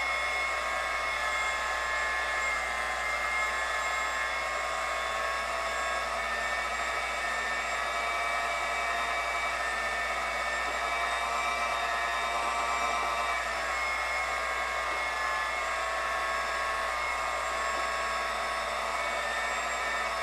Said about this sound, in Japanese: よしそしたら卵白を泡立てます